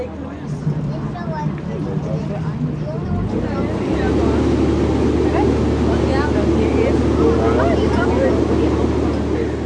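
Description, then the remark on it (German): A harbour tour boat's engine drones steadily on the water of the Hamburg harbour, its low hum stepping up to a heavier, louder throb partway through, with talk running over the engine noise. “Ich wünsche Ihnen eine schöne Fahrt durch den Hamburger Hafen.”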